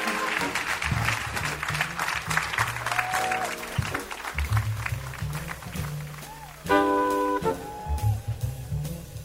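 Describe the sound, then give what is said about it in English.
A crowd applauds a guest filmmaker steadily, a dense wash of clapping heard alongside brief bursts of music with low bass notes and bright tones, the clapping lasting throughout. “And with that in mind, would you all please join me in thanking our guest, one of the greatest movie makers in oh, history.”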